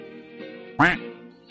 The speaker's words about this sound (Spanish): Digo, la del pato, el pato, eso.